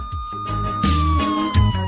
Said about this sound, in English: So I was going to say, so you heard the siren, and the first thing you screamed out was "Run, run!"